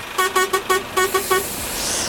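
The horn of the NPO Radio 1 bus, arriving in Overijssel, honks seven quick times in a rhythmic pattern, four blasts then three, loud, followed by a soft rushing background noise with no voices.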